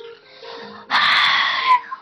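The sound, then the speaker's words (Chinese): A voice imitates a little rabbit's yawn: a soft breathy intake, then a long, loud, open-mouthed exhale lasting nearly a second that trails off with a small sigh. “呼嘘，呼嘘，啊哼，小兔子打了一个哈欠，抱着小玩偶兔子。”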